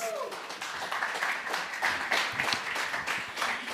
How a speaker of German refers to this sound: Applaus! Applaus!